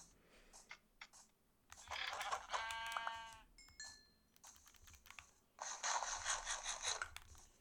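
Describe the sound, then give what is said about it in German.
A couple of wavering video-game sheep bleats ring out, mixed with rapid clicky keyboard tapping between them; no one speaks. “Nee, hier sind genug Schafe.”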